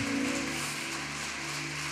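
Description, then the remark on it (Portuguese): An audience applauds the Lord in a dense, steady wash of clapping that holds at an even loudness for about two seconds, with sustained low musical tones droning underneath. “Dá um forte aplauso ao Senhor.”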